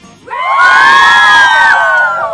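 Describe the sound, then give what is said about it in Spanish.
A group of children shouts together in one loud, sustained collective yell lasting about two seconds, rising quickly and then fading slightly at the end, energetic. “A ver, un grito, pues.”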